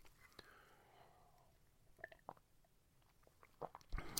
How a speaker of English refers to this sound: I'm grateful for my coffee that I just took a sip of.